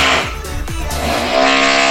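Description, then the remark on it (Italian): A motorcycle engine revs hard, its pitch climbing and dropping through quick throttle bursts before holding a loud, steady roar as it pulls away. “Vai con la moto.”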